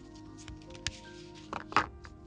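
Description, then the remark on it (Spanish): Soft card shuffling: a few brief papery snaps and rustles, with a small burst near the end, heard alone over a faint steady hum. “Y ahora yo barajo las cartas.”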